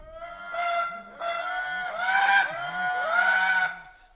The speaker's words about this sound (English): Well, these are the amazing sounds, clarinet like toots of the Indri, the last of the great lemurs. This is a big treetop lemur with no tail. Lemurs are, of course, living in the forests of Madagascar and limited to Madagascar.